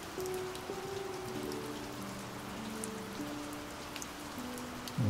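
Steady rain from a thunderstorm patters down in a continuous hiss with scattered drop sounds, while faint sustained tones hum beneath it. No one speaks, and the level stays even throughout.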